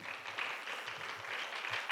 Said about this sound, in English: Let's give God a good hand. Praise God before we say or do anything else. Praise God. Everyone clap.